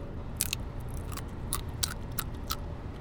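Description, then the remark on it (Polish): Sharp, crackly crunches of a snack being bitten and chewed right up against the microphone, about eight bright snaps spaced irregularly over a low rumbling background, with no talking. “No skubnij sobie ale nie przykładaj mi tak blisko tego mikrofonu. Myślę, że to było słychać, że to strzela.”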